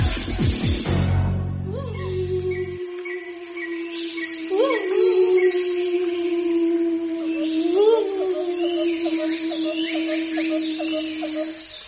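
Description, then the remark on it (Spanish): A crab-eating fox in Medellín, Colombia, gives a long, sustained howl that swells and wavers upward twice, following a brief noisy burst at the start, with faint chirping in the background. “Yo soy un zorro perro que vive en Medellín.”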